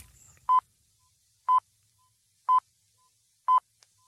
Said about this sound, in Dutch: Zes vier pips. Zijn er twee afgevallen.